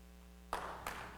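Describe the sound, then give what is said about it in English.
A church audience breaks into clapping partway through a sermon, a burst of dense applause with sharp claps standing out, following a quiet hum in the first half. “So, okay, so listen, listen, don't need to clap it.”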